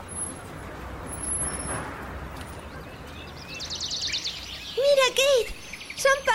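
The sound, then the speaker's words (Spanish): Birds sing and chirp in a large park, with a rapid trilling phrase followed by clear, repeated whistled notes, over a steady background hum of outdoor noise. “¡Pájaros de verdad!”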